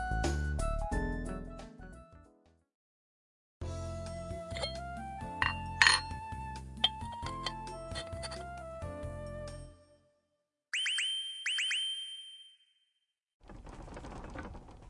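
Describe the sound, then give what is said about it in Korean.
Dishes and objects clink and rattle loudly in rapid, irregular bursts as a living room is shaken by an earthquake, followed by a brief high ringing chime and a final softer burst of rattling. “揺れてる地震落ち着いてください大丈夫ですよほらもう収まった初めてだったからびっくりしました”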